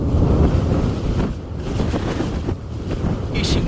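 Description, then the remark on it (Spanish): A steady, heavy roar of strong morning wind buffeting the microphone, with a deep low rumble from the erupting volcano on the island of La Palma, Canary Islands, underneath that swells and dips throughout, heard live, no voices present. “Y ese sonido, Jesús, que escuchamos, ese sonido en directo que nos llega desde la isla de La Palma, el sonido del volcán, de la, erupción y también del viento, del fuerte viento que sopla a esta hora de la mañana.”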